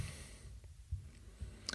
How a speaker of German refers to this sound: ich klicke jetzt mal kurz dahin,